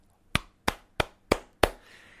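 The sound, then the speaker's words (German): A person imitates the clapping of the New York Giants' offensive coordinator, a former Dallas Cowboys coach: five sharp hand claps in a steady, evenly spaced rhythm, crisp, with brief silence between each and no voices. “Der ehemalige Coach der Dallas Cowboys, der äh, eigentlich nur klatschte, aber sonst nichts hingekriegt hat, der ist da für die Offense zuständig.”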